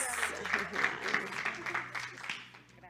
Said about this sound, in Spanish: Muchas gracias, se pueden poner de pie, vamos a darles un aplauso.